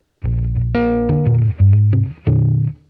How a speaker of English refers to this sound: He puts on this really loud humbucker pickup you find on like a metal shredder guitar. But then adds flat wound strings, which you'd conversely find on a jazz guitar. It's a strange pairing.